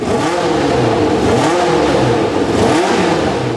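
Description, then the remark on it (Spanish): A Formula 1 race car engine revs loudly, its high whine sweeping up and down in pitch several times in quick succession, with no voices; it is the car of Roberto Guerrero, the first Colombian Formula 1 driver, racing with Café de Colombia branding in 1982. “Roberto Guerrero, el primer piloto colombiano de Fórmula 1, compite con el Lobo de café de Colombia en su carro.”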